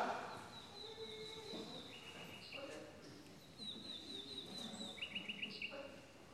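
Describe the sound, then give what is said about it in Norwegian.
A bird chirps in short, high tweets, then a quick series of rapid trilled notes near the end, fairly clear over a soft background murmur of voices. “En fugl.”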